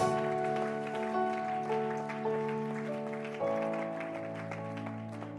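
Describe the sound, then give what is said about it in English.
A church audience claps along steadily beneath sustained organ-like chords, the hand claps forming a rapid, continuous patter mixed into the held musical tones. “Oh, clap your hands.”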